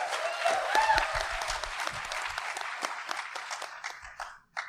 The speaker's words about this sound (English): And all right, you're clapping. You're okay with it.